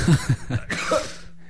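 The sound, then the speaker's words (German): A few short, quick intakes of breath build up to a single sharp sneeze, fairly loud and breathy, trailing off quickly with no talking. “Gesundheit.”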